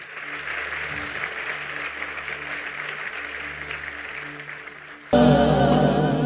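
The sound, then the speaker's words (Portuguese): A church audience applauds God with sustained, dense clapping over a low, steady musical backing; at the end the clapping gives way abruptly to louder, sustained organ-like music. “Vamos aplaudir a Ele e vamos orar.”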